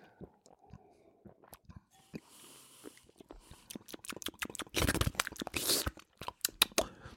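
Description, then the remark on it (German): Wet lip smacking and mouth clicks repeat irregularly, with a louder slurping, swishing stretch partway through as a beer is tasted; no one speaks. “Dann müssen ein paar Schmatzgeräusche machen, damit ihr wisst, was mhm. vor sich mhm. geht.”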